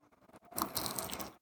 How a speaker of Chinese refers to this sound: 我觉得那个刚饼皮也是我个人非常喜欢的地方。我觉得就是让大家听一下我们吃饼皮的脆度，还有它的那个嚼劲的声音